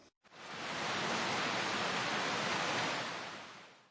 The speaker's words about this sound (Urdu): تیز بارش ہو رہی ہے جی بالکل جاپانی زبان میں اسے اس طرح کہتے ہیں زازا یہ اس وقت استعمال کیا جاتا ہے جب بہت زیادہ بارش ہو رہی ہو